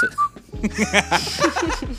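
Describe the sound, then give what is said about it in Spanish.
A person imitates the whistling wheezes (sibilance) of breathing: two brief, thin whistled tones, then a run of strained, pulsing vocal wheezes over a low hum, fairly loud, with a chuckle-like quality. “O, bueno, no, ahorita no, no, sé silbar, la neta, estoy jodido en eso, pero se escucha como un silbido.”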